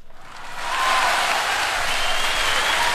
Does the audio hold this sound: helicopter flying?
no